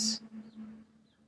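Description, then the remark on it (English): Chickadees call faintly: a brief bright chirp at the start, then two thin, wavering notes spaced apart, all over a steady low hum with no one talking. “You can probably hear some chickadees behind me.”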